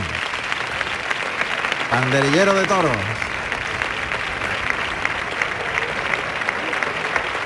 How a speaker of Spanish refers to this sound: Que se lleva también la ovación del público.